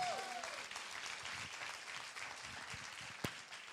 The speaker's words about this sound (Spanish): si usted lo cree, denle un aplauso fuerte a Jesucristo.